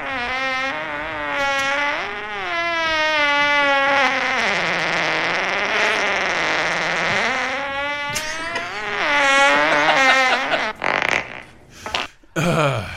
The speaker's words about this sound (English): I'll get to that after we do a little bit of a quiz down here. Who can guess what this fart is?